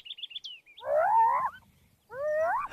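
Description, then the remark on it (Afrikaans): A yellow toy machine gives a quick run of high chirps, then two loud, wavering hyena-like whoops that swoop up and down in pitch, clear with no talking. “'n Hiena?”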